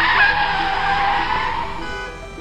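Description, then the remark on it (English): A loud, sustained screech of car tires skidding on pavement in traffic, bright and piercing, slowly fading over a couple of seconds with engine and road noise beneath, no voices. “Where did all this traffic come from?”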